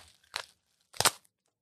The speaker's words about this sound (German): So, und wir haben hier einen Knallbonbon. Ich ja im Leben nicht gerechnet. Knallbonbons, ja, ja. wo man so ziehen muss.